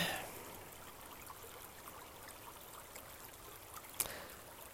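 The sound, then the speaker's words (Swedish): A brook flows steadily, a soft continuous trickle and babble of water with a brief splash near the end, no voices present. “Lyssna till bäcken som rinner.”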